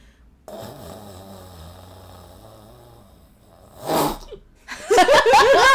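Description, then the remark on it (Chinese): A voice imitates a husband's snoring with sleep apnea: a long, low rumbling snore that suddenly cuts out into a brief silence, then a sharp, loud gasp of breath, followed by louder, strained vocal noises. “你有听过有一些人打呼会突然的有一种。呼吸什么睡眠中止症的这种感觉吗？”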